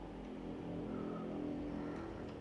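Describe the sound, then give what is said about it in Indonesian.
A motorcycle engine revs loudly outside, its throaty mid-pitched roar rising and holding steady for a couple of seconds with a rough, sputtering texture and no voices. “Wow, suara motor mengganggu banget anjir, anjing banget bangsat.”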